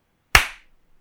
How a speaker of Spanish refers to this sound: El aplauso, aplauso. El aplauso. Aplaudí.